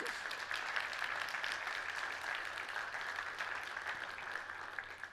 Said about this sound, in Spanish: Dele un aplauso al Señor entonces.